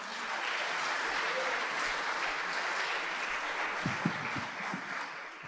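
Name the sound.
audience applauding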